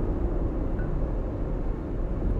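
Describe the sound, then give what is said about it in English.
Steady low road rumble fills the car cabin, a continuous muffled drone of traffic and engine noise with no distinct events and no voices. The car is driving in traffic between two trailers after a truck cut it off. “this is Traffic Talk, and we are in traffic”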